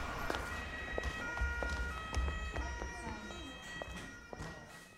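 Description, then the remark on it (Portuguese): An ambulance siren sounds at a steady, moderate level, its tones holding fairly constant, with scattered sharp clicks and knocks and some low rumbling mixed in around it. “Reinaldo imediatamente chamou uma ambulância.”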